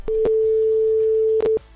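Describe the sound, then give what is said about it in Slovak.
A telephone ringback tone sounds while the radio station Európa 2 places a call to a listener: one steady, unbroken beep lasting about a second and a half, bracketed by small clicks, over faint background music. “Hlasovali ste za aktivity, ktoré máme robiť a my v tomto momente ideme volať jednému z vás, ktorý nám vybral aktivitu Limbo tanec.”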